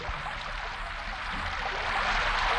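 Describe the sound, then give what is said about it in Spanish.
Steady, dense rain hisses evenly throughout, growing slightly louder and fuller toward the end, with no voices or other sounds over it. “Y terminada la siembra. Ahora que llueva.”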